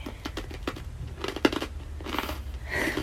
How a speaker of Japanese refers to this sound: ポリポリ